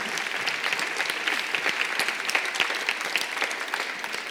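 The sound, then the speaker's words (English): An audience at a panel discussion held by the Winnipeg Foundation and the Green Action Centre applauds the panel steadily for several seconds, a dense, even patter of many hands clapping with no voices over it. “But um, let's just give one more round of applause for our panel, for our discussion.”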